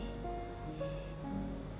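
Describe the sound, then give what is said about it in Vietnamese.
Wind blows steadily outside under dark clouds, gusts carrying a few paper-flower petals from a neighbouring house onto a work desk; a continuous low rushing and rumbling that never lets up, with faint sustained tones lingering underneath. “đang kéo những đám mây đen những cơn gió những cơn rông đang thổi bay vài cánh hoa giấy của nhà hàng xóm vào bàn làm việc”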